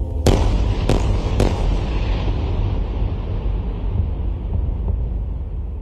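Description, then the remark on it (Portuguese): Three sharp explosive bangs in quick succession early on, then a dense, rumbling roar of blasts and crackle continues steadily with no voices: a night-time battle in the sky, with a barrage of rockets and high-precision missiles streaking orange through the air. “De um lado, uma chuva de foguetes. De outro, mísseis de alta precisão riscam o ar de laranja”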